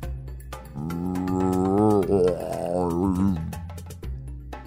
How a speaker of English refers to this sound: Uh, was that my stomach? Could it really be that already?